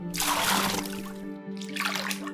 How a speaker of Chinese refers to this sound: 有的是把家里的积水泼出去，